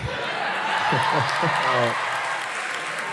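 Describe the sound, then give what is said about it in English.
An audience applauds a joke, clapping steadily in a dense, even wash of applause, with a voice speaking briefly over it partway through before the clapping carries on alone. “The biggest thing about like them applauding right now is that you have to have heard that joke.”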